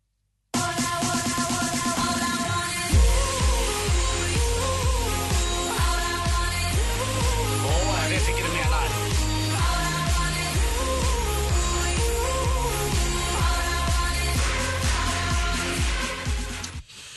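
A polished pop song plays steadily, with a strong rhythmic bass and beat entering after a short intro, layered synths and a melodic vocal line, loud and continuous throughout.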